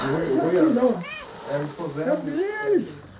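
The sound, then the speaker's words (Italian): A cat meows a few times in quick succession, fairly loud, its drawn-out calls rising and falling in pitch over a steady hiss of background noise. “All the medals, tutte le medaglie e un gatto.”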